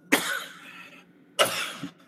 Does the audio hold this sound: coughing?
yes